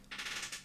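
A quick, bright rattle of bracelets clinking together, with a chair creaking, in a short run of about four or five jangling bursts, with no talking.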